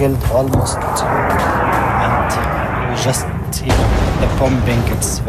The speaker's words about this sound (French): Vous venez d'entendre un nouveau bombardement très près de moi.